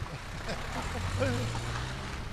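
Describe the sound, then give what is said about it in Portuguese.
A vehicle rumbles past on a potholed road on the south bank of the Tagus, its low engine drone and road noise filling the whole moment, with a faint murmur of voices underneath. “Vamos se calhar sair só daqui da estrada porque ela está esburacada, mas os carros continuam a passar, não é?”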